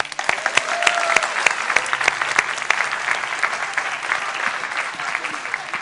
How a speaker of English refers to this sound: And can we give our helpers a clap?